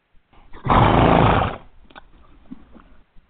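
A horse lets out one loud, rough neigh lasting about a second, followed by a few faint snuffles and soft shuffling noises.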